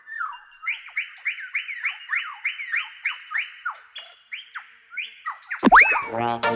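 A superb lyrebird call: a quick, steady run of about a dozen swooping whistled notes, ending in a sudden louder burst of harsh, tumbling, descending warbles. No one speaks.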